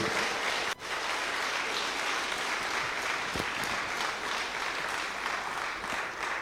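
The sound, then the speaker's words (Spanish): An audience at a church service applauds steadily to welcome their pastor, a dense wash of many hands clapping at once that stays loud and even throughout, with no voices standing out above it. “invitamos igualmente con un fuerte aplauso a nuestro pastor César Valdivieso”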